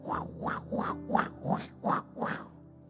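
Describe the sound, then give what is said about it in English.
A rapid, whooshing ultrasound heartbeat pulses steadily, about six beats in under three seconds, each beat a swishing thump with no voices over it. “That's the heartbeat for your vision that God has for your life.”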